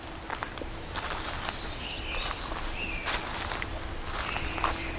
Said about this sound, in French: Auditeur, auditrice. Je vous propose une carte postale sonore bretonne.